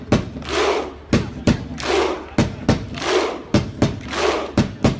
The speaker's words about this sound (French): Le son du jour, c'est le clapping des supporters islandais. Ils ont mis un partout hier face à l'Argentine, en face de poule du mondial, donc ils le valent bien.